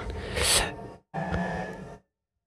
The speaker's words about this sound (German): aber jetzt hört man die Bohrmaschinen.